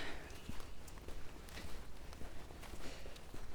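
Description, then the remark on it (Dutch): Steady footsteps of someone walking past at an even pace, each step a soft, distinct tap over a low background hiss, not loud. No one speaks. “Wacht even, ik zie iemand lopen daar.”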